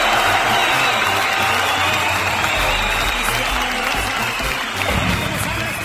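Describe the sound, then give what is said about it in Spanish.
A big crowd cheers and applauds wildly, a dense, steady roar of clapping and shouting that stays loud and unbroken for the full six seconds. “Y el público enloquece”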